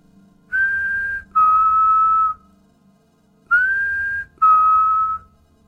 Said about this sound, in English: and eventually filmed a man in a boat making the same two tone whistle. It was disturbing, and many people debunked the story as being the sound of a particular bird, something which I have my reservations about.